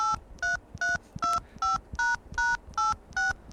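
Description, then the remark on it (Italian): A phone number being dialed on a mobile phone: about nine or ten short keypad beeps, each a steady two-note tone, pressed in an even, quick rhythm with faint tapping thumps underneath and no talking. “Dai, fa il numero, almeno parliamo con sta eh,”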